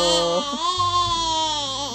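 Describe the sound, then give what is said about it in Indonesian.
A voice imitates a sheep's bleat, a sustained, wavering "baa" with a nasal, tremulous pitch, loud and unbroken for about two seconds with no other talk. “oh di film Nusa ada domba juga ya, ya takut adik dombanya ini kayak bapak-bapak ya ah, lucunya be gimana suara domba oh gitu”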